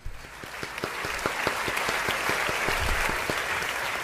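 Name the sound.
round of applause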